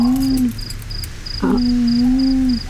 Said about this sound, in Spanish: oí un al búho y el chirrear de los grillos.